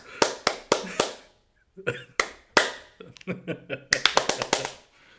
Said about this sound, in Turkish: Alkış başlatıyoruz şarkıya. Ama hı dedim kesinlikle ritim yok. Kafanıza göre alkışlayın. Yani şöyle alkışlar mesela.